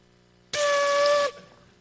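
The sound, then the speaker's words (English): A voice imitates a Transformers robot transforming with one loud, breathy, hissing burst carrying a steady whistling tone. It lasts under a second, cuts off sharply, and is heard alone. “I'm making a Transformer sound for those of you that have not watched Transformers.”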